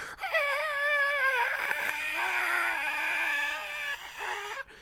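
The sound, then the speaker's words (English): A voice imitates a gander goose honking: one long, loud, strained nasal call held for several seconds, wavering in pitch, with no other talk. “There's the fucking gander goose.”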